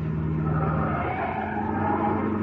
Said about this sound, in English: slam on the brakes.